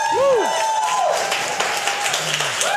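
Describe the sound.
A church audience applauds steadily for their preacher after last week's sermon, a dense wash of many hands clapping at once, with a few brief voices and exclamations rising over the clapping.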